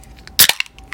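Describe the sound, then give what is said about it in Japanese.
A can of non-alcoholic beer is cracked open with one sharp pop and a brief fizzing hiss, followed by a few faint clicks and taps. No one speaks. “えー、ノンアルビールを”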